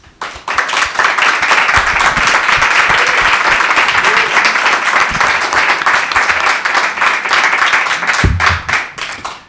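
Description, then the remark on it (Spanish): A crowd at the Matt Vitans Guitars space on calle La Palma 73 applauds a new photography talent, a dense wash of many hands clapping at a loud, even level for several seconds before tapering off at the end, with faint voices mixed in. “tenemos también la oportunidad de dar un aplauso a uno de los nuevos talentos de nuestra fotografía”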